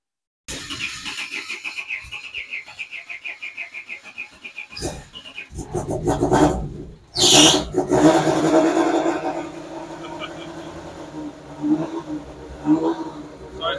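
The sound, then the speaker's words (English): A WRC rally car engine with a sequential shifter cranks with a whining starter, catches with a loud bark, then revs hard in sharp bursts before settling into a rough, aggressive idle. “Um, a very cool car, you know, inside you can tell it's a, a WRC car.”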